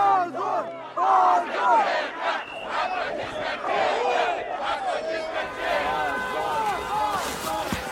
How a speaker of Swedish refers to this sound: Ja, här hörde vi lite av hur det lät i Moskva under helgen. Demonstranter som ropar slagord och kräver att gripna ska släppas fria och bilar som tutar för att ge stöd.